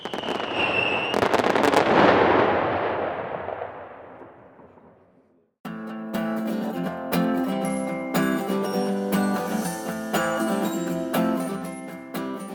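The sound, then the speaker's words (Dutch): A short whistle, then a loud New Year's firework bang bursts into a long crackling, sizzling fade lasting a few seconds. After a brief silence, a bright musical jingle starts. “Dan vieren we met oliebollen en vuurwerk dat er weer een nieuw jaar begint. Aftellen en knallen maar!”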